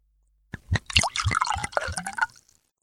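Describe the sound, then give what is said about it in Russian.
Absolut vodka glugs out of a one-litre bottle in a steady pour lasting about two seconds, with bubbling splashes and a rising gurgle as the glass fills. No one speaks. “И заведующий с гордостью поставил на стол литровую бутылку Абсолюта.”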